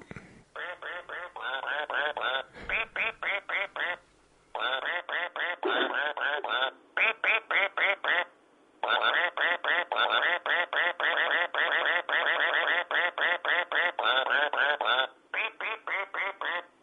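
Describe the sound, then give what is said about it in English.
A battery-powered toy duck, owned for about 15 years, quacks in rapid, rhythmic bursts, loud, with brief pauses between runs of electronic-sounding quacks and no talking. “Now I've got this duck. Yeah. That will squeak and that will do anything.”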